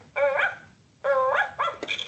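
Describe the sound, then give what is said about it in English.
A toy puppy from a bath playset barks two drawn-out, tonal yaps, then a couple of quick, clipped yips, fairly loud, with no talking. “essentially, the puppy will recognize when she's placed inside for her bath, all the accessories will align to the buttons on the bottom.”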